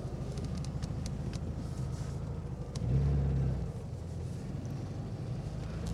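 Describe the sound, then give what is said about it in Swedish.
The engine of an early-1970s Volkswagen car, painted Texas yellow, runs steadily with a low, throbbing rumble and faint rattles, briefly swelling louder around the middle before settling back to its even idle. “Det, det, går lite tystare än som Dans vrål åker där.”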